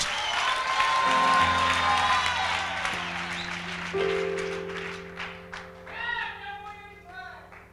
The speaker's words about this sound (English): Clap your hands and give the Lord a wonderful shout.